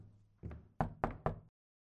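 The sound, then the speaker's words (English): Four firm knocks on a wooden office door, fairly loud, the first softer and the last three sharp and evenly spaced, then silence. “Come on in. The door's unlocked.”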